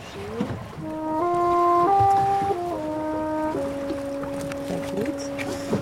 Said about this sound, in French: Euh, entre le bateau de pêche derrière nous et nous, bah, c'est nous qui faisions le plus de bruit.